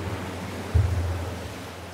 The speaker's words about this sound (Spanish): Salto los bordes espumosos de cada ola hasta que logro superar la línea de rompiente. Y acá estoy, suspendida en el agua salada, flotando, encandilada por el orillo del sol. El agua está helada